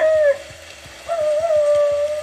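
A wild dog howl rises on a sustained, wavering tone, breaks off briefly, then returns in a long second call, clear, with faint rhythmic ticking underneath.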